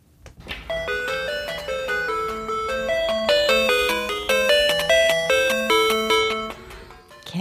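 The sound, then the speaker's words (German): Sound from an early Tetris computer game: a bright, bleepy electronic melody of quick, evenly paced notes playing steadily and fairly loud for several seconds, with no voices. “Das ist ein Computerspiel, ein ganz frühes Tetris.”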